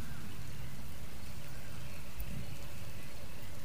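Steady rain patters down on a swamp, a soft continuous wash over still water with low rumbling and scattered droplets, fairly quiet, with no voices present.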